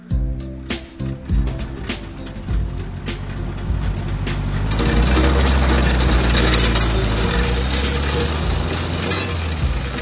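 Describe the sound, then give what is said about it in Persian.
An old, worn-out car's engine idles roughly through a faulty exhaust at a repair garage, starting with scattered clanks and sputters before settling into a loud, steady, rattling rumble. “Na, da ist wohl ein neuer Auspuff fällig.”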